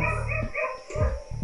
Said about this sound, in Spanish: no sé si se escuchan los perros Del vecino ladrando de fondo.